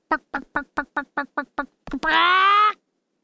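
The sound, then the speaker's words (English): A person imitates a chicken, making farm animal noises: about nine quick, evenly spaced clucks, then one long, loud, drawn-out squawk, with no other sounds. “I don't know if you could tell that was my chicken.”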